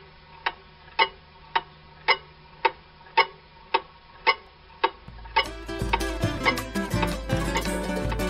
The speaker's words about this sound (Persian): تاک تیک تاک تاک تیک ساعت بزرگ با خوشحالی کارش رو دوباره شروع کرد و گفت خیلی ممنون شما دوستای خیلی خوبی هستین چقدر سخت بود هیچ وقت انقدر ساکت نمونده بودم و صدای تیک تاکش توی آشپزخونه پیچید